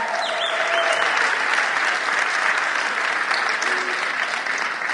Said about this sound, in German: Und ich möchte euch gleich kurz mal die Kamera schwenken, denn wir sind hier in Dortmund mitten im U und haben so ein paar Leute hier versammelt. Das sind die Menschen, jubelt doch mal hier in Dortmund.